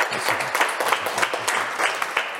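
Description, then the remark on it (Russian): An audience gives an ovation for a speaker, many hands clapping steadily in a dense, continuous patter of sharp bright claps with small rises in intensity, and no voices heard. “Я спасибо за ваши овации.”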